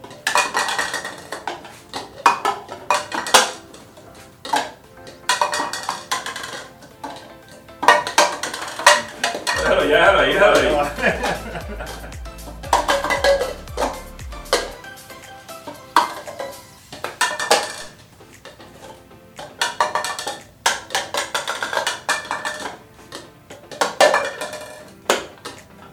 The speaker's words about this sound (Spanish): Si el vaso cae parado, el vaso entra en el juego.